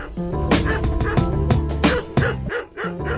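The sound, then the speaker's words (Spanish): A dog barks repeatedly in a quick, fairly regular series of loud barks, with a steady tonal bed running underneath throughout. “Ladridos.”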